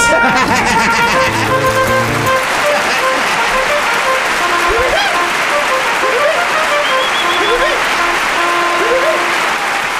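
Loud, dense applause from a crowd fills the whole stretch, steady and close, with brass-like tones and rising musical glides sounding through the clapping.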